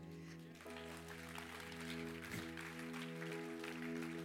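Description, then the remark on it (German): An audience claps continuously for about four seconds for a man doing work with teenagers in Cambodia, a dense, steady wash of applause that swells slightly partway through, with a low sustained hum running underneath. “Einen riesen Applaus.”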